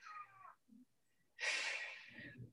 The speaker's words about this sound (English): Hush. That was my cat.